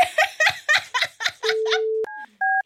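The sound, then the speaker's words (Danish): A short run of breathy, laughing bursts gives way to a steady dial tone, then a click and two clear electronic keypad beeps as a phone number is dialed. “Vil du ikke lige øh, sige hej, hvis vi ringer op til hende?”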